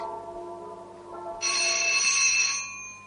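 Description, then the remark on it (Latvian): A doorbell rings out, a steady bright electronic tone that holds for about a second before fading, preceded by a softer lower chime; no voices are heard. “Atvainojiet, es paskatīšos, kas tur zvana. Varbūt tur kāds atnācis pie manis.”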